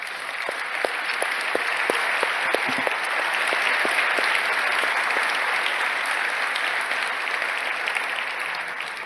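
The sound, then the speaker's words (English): An audience applauds the team working on Gutenberg, steadily for about nine seconds, a dense wash of many hands clapping at a fairly loud, even level, with a few sharper individual claps standing out early on. “Can we have a quick round of applause for the team working on that?”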